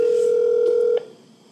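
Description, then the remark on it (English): A phone's ringback tone on an outgoing call to a grandmother that goes unanswered: one steady electronic ring lasting about a second, then it cuts off into quiet line hiss. Nobody speaks. “they're not answering, we'll your grandma, your grandma's letting me down.”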